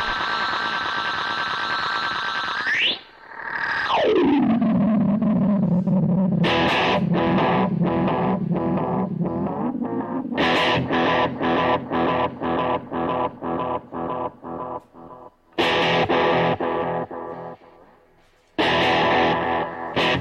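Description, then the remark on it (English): Distorted electric guitar through an analog delay pedal, the Carbon Copy: a sustained tone swoops down in pitch, then loud, rapid chopped chords repeat in a steady rhythm with echoing trails and brief gaps. “again, this is the carbon copy.”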